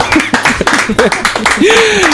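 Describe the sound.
A group clapping in quick, dense bursts of sharp claps for a game contestant who scored 30 points, joined near the end by a voice letting out a long rising and falling cheer over the applause.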